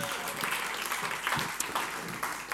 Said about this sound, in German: Applaus für ihn.